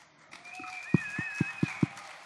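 A handful of sharp, evenly spaced claps, about five in a steady rhythm, over a faint crowd murmur, with thin high whistling tones drifting above.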